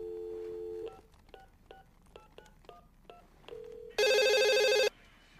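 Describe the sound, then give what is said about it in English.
A steady dial tone gives way to a quick run of about ten touch-tone keypad beeps, then a short tone and a loud, buzzy ring, with no one speaking. “What if we did a live call on the show? We called Dylan.”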